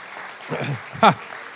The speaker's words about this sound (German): Alle Frauen klatschen, alle Männer schreiben mit.